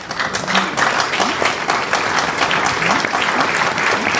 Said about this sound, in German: Und Applaus an uns, denn äh, wir haben keinen Doppelte gehabt.